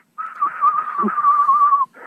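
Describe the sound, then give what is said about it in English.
A steady, wavering whistle of a duck's wings as it flies and passes over, one sustained pass of under two seconds, clear with no talking over it. “They almost get like a square head when it's a really mature duck, really white feathers, and they have a whistling sound um, when they fly.”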